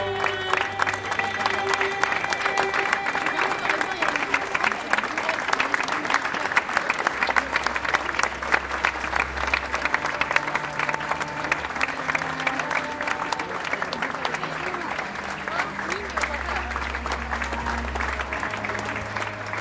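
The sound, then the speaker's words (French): A large crowd along a procession route applauds steadily and continuously for about twenty seconds as two coffins pass, dense clapping filling the space, with sustained low tones droning underneath throughout. “Au passage des deux cercueils, on applaudit.”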